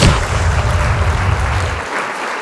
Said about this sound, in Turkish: Alkışlar gönderiyorum ben.